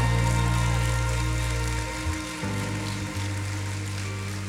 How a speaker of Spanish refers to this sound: Denle fuerte un aplauso al Señor.